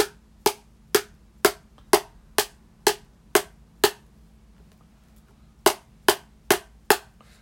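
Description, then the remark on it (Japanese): Sharp, hollow taps on the bottom of an upturned microwave-safe plastic food container of the kind sold in 100-yen shops, eight evenly spaced knocks, a pause, then four more, fairly loud with no talking. “今日はね、えー、っとですね、まず、えー、っと、電子レンジで使えるタッパー、プラスチックの、あの、100均とかで売ってるやつ。”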